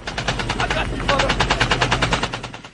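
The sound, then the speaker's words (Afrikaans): Rapid automatic bursts from BB guns during a match on the field, a fast steady chatter of shots lasting the whole clip with a brief dip in the middle, fairly loud. “Basies wat jy vandag kry is BB guns wat basies met batterye werk, gas werk. Hulle is semi-outomaties, full automatic.”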